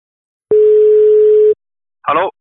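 A single steady ringback tone of an outgoing phone call sounds for about a second, clear and fairly loud, followed after a short pause by a brief voice-like burst.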